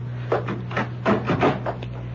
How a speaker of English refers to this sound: I think you'd better... Yeah, close the door, Topa.